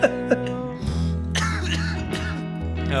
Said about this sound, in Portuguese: Ai, caralho, até tossi.